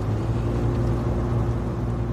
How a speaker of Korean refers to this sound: 오늘 엔진 소리 좋네.